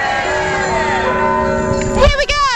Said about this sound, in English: Everyone, are we ready to go with the bells?